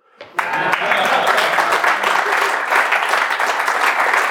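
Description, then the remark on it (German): An audience breaks into sustained applause after a brief quiet start, dense clapping holding steady and fairly loud for about four seconds with no talking over it. “Ich weiß nicht, ob es aufgefallen ist, dafür hätte ich ganz gerne jetzt einen Applaus.”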